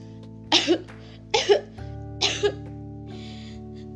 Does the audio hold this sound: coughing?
yes